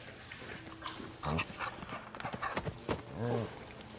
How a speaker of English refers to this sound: Is that the dog? He likes you.